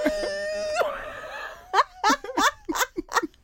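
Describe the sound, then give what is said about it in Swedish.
A voice imitates muffled crying with a hand held over the mouth: a drawn-out, wavering moan, then a breathy pause, followed by a quick run of short, choked sobbing bursts. “Jag håller för munnen. Gråter.”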